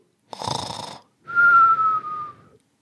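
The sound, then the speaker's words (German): A voice imitates a comic-style snore: a rough, rattling inhale followed by a long, steady whistled exhale, performed once with no other talking. “Ey, warte mal, übrigens, mir fällt gerade auf, dieses mit dem, warte mal, so, also so schnarchen gibt's nur in Comics, oder?”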